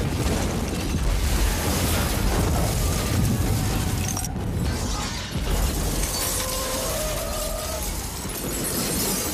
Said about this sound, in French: Et d'un coup, boum, grosse explosion.